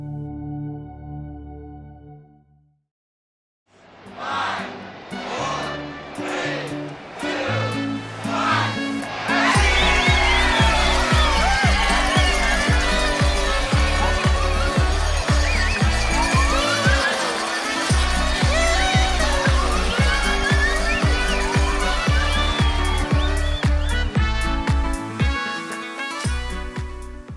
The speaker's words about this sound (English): The sounds you just heard are from a New Year's Eve party, and there are some distinct noises that are associated with celebrations, such as the sound of laughter,